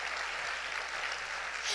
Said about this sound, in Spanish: Esposas, denle un aplauso al Señor.